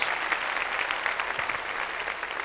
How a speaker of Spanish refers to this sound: Démosle palmas a nuestro Señor. Gloria a Dios. Gloria a Dios.